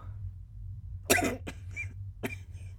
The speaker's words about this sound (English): coughed. Blood replaced saliva.